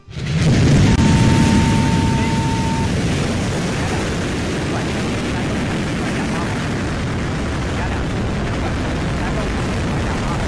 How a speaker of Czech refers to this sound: 17. ledna v 15.27 našeho času odstartovala z kosmodromu Wenchang raketa Dlouhý pochod 7.